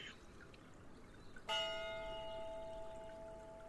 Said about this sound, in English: That is a warning bell for the Council of Elrond.